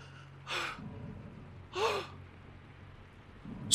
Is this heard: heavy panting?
yes